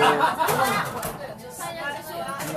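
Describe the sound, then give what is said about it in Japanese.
A steady murmur of many overlapping voices fills a busy standing bar in Kobe, Japan, with occasional chuckles rising from the dense crowd chatter. “えらいところでそう立ち飲み屋な初めて来ましたここすごい場所ですね誰かもう人に聞いてくれてるよあそうこれちゃんと入ってんのかな、立ち飲み行こう立ち飲み行こう言って申し訳ないね”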